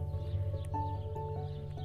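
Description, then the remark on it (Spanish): Horse hooves clip-clop in a few spaced steps, mixed with a steady tonal whinny-like sound, moderately loud, with no talking. “Pero un poco más tarde volvió y dijo, si no podemos tener un águila, podríamos tener un caballo.”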